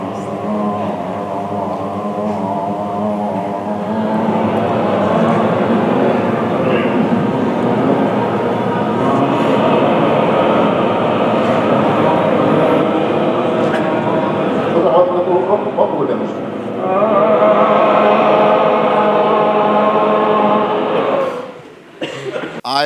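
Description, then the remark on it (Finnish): A group of voices at a lecture holds a steady, wordless drone in unison with some harmony parts, layered harmonic tones sustained loudly for about twenty seconds, swelling slightly midway before cutting off abruptly at the end. “että tulee niin kuin, vähän stemmaa kanssa, ja sitten toi, ja, ja, ja tota, että on niin kuin about 50 sekunnin niin mölinää tapahtuma.”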